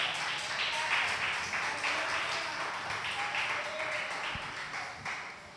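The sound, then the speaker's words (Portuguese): A large crowd applauds the Lord steadily, dense clapping at a fairly even level for several seconds, with faint voices mixed in beneath the applause. “Vamos aplaudir ao Senhor.”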